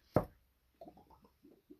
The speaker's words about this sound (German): Man hat jetzt gehört, dass wir alle so oft geklopft haben, ne?